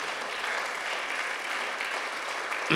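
An audience claps for the Lord during a sermon in a steady, dense, continuous wash of applause that holds at an even level, with a brief louder burst right at the end.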